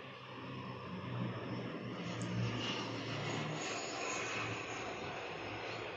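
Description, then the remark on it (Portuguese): An airplane passes overhead with a steady, broad engine roar that swells slightly and then holds, filling the whole six seconds with no voices. “e o avião passando aqui.”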